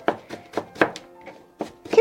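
A knife mincing food on a cutting board: a run of sharp, fairly loud chops at an uneven rhythm, about seven strikes with brief gaps, with faint speech-like tones in the background.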